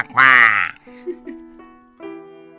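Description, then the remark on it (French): A voice imitates a duck with one loud, nasal, rasping quack, followed by a few softer, lower vocal sounds that trail off. “Et le canard répondait Quoi,”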